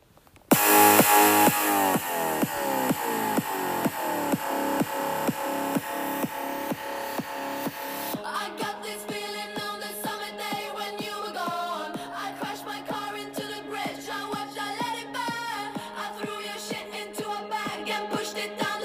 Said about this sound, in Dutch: Dus ik ga even een stukje van het nummer laten horen.